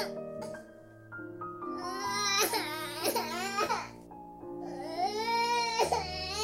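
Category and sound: human body sound, baby crying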